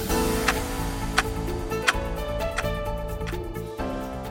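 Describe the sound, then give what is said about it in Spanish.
Steady clock ticks, roughly one every two-thirds of a second, sound clearly over a sustained musical drone, with no voices present. “… de … en semana.”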